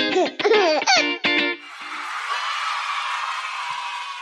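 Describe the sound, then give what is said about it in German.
A baby news jingle: a baby laughs in several bright, bubbly bursts for about a second and a half, then a soft, sustained shimmering hiss carries on to the end, with no talking. “Kommen wir damit zu den News des Tages und der Baby-Jingle, bitte.”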